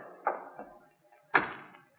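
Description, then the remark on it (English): A door swings shut: a couple of light knocks and bumps, then a louder, solid thud that rings out and fades. “Step inside, young fella, and we'll close this door.”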